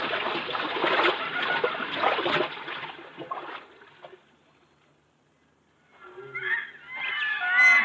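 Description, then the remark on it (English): Heavy splashing and sloshing of water, like steps wading through a river, fairly close and continuous for a few seconds, then fading to near silence before some higher, warbling sounds begin. “We can cross the river here, Bwana. It will not come above our hips.”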